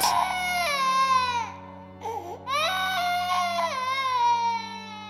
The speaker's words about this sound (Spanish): Existen testimonios que aseguran haber escuchado durante la noche el llanto de un bebé procedente de la guardería.